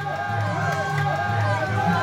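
A dense crowd of young fans cheers and shouts outdoors outside a city-centre nightclub in Besançon, France, at 3 a.m. in May 2013, on spotting their idols, a steady wall of overlapping voices and whoops with no pauses, fairly loud.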